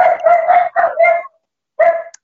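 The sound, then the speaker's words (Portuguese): The speaker's dogs bark loudly in a quick, rapid string of yaps, then fall silent briefly before one last bark rings out. No voices are heard. “Meus cachorros começaram a latir”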